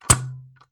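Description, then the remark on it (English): A single sharp plastic snap of a Nerf Buzz Blasters toy foam-dart blaster firing from the bottom of its three front dart spots, followed by a brief low ringing hum that fades, then a faint small click. No voices. “It has three spots for darts in the very front, and two of them are just holders, and then the bottom one is where it shoots. Guess what? And, it sounds like this.”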